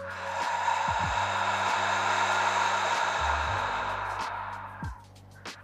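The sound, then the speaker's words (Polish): A long, deep exhale during a breathing exercise blows out steadily for several seconds, breathy, then tapers off, followed by a couple of soft breath sounds. No one speaks. “Więc weź głęboki wdech i głęboki wydech.”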